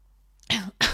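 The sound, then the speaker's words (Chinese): Two loud, harsh coughs in quick succession, the first longer with a throaty rasp, the second short and sharp, with no talking over them. “不好意思，大家这个有点咳嗽”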